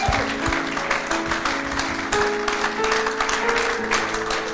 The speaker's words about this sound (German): Hey, für den Rest von uns. Hey, ja, gib der Person mal einen Applaus. Richtig gut.